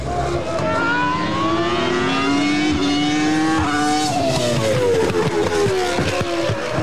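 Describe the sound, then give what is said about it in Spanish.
A high-pitched Formula One RS1 V10 racing engine (10 cylinders at 67 degrees, 3,493 cc, 141 kg, about 650 horsepower) screams continuously, its pitch sweeping up and down through gear changes, loud with no voices present. “era el RS1, un B10 10 cilindros en B a 67 grados, que pesaba 141 kilos y erogaba unos 650 caballos de potencia.”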